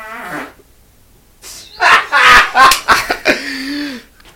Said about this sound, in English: The best part was someone just, someone just astro projected a fart into this room.